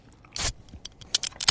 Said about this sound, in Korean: 예, 맥주캔 따는 소리가